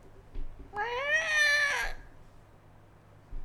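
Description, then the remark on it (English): A person imitates a high-pitched, blood-curdling scream: one strained, wavering wail just over a second long, fairly loud, with a cat-like yowling quality, then quiet. “that just sounded like you hit a cat.”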